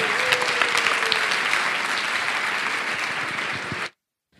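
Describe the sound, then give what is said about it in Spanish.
Steady, dense applause from an audience, a broad wash of many hands clapping at an even loudness for about four seconds before cutting off abruptly into silence. “Y les quiero dar las gracias también, y creo que este aplauso debería ir para ellos, ya que tengo la oportunidad, a mis compis de Yes We que se han currado unos podcast days tremendos desde allá arriba.”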